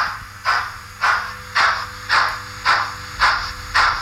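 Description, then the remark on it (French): Rhythmic puffs of hissing steam from a small model steam locomotive, about seven even chuffs over a steady low mechanical hum, with no talking. “Fatalement, le, bruit de la vapeur.”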